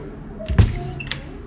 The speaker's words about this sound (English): He flinched and dropped his bike helmet, which thunked loudly down the stairs.